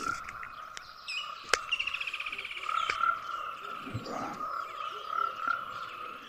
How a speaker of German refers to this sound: Jetzt sehe ich sogar hier einige Frösche, die ihre Schallblasen aufblasen. Ziemlich bunte Frösche da am Rand.